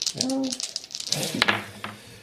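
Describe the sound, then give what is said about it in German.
A quick clatter of dice tumbling across a tabletop, a burst of small hard clicks over about two seconds, with a faint murmur of voice underneath. “So, was, auf was würfel ich denn jetzt eigentlich?”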